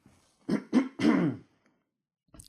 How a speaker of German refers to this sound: So, ich muss mich mal räuspern.